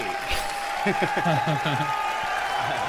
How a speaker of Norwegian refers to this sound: Høres ut som det er Mest jubel fra publikum. Ja, den er jo bare fordi de er en veldig hype allerede, så. Det er bare dramaturgien her som gjør det, tror jeg.